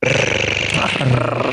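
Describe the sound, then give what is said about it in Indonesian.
A voice imitates a sport motorcycle engine with a steady, buzzing, revving drone held for about a second and a half, loud with no words. “Bukannya R bunyinya gitu ya. Bunyinya bunyi gini.”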